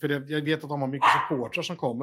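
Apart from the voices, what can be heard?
dog barking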